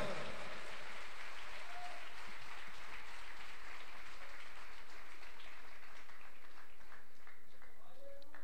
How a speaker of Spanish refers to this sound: Le da palmas a Él en esta hora.